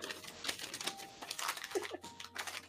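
Crinkly tissue paper rustles and crackles in quick, irregular bursts as it is pulled out while a gift is unwrapped, a soft papery scrunching that continues for a few seconds with no one speaking.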